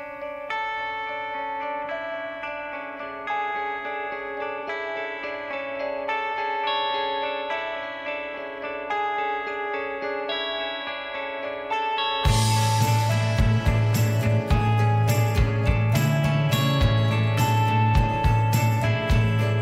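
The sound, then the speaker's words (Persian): Layered guitar music in a five-against-four polymeter: the guitar arpeggio marks five beats in interlocking patterns; around twelve seconds in, drums playing in four and bass crash in, making the track fuller and louder. Purely instrumental, with no voices. “دقت بکنید به اینکه درامز کجا شروع به نواختن میکنه و چهار ضربش از کجا شروع میشه و این دوتا کی دوباره به همدیگه میرسن و حالا خود قطعه رو اینجا بشنویم بدون اون صدای ضربهایی که من روش گذاشتم”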